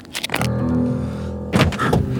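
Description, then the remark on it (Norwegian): A car's passenger door is yanked open by someone who then throws himself inside, the car stopped under a chestnut tree in a bend: a quick burst of sharp mechanical clicks and thunks, a steady low hum, then another loud rattling clunk and thud. No one speaks. “Reiv opp døra på passasjersida og heiv meg inn.”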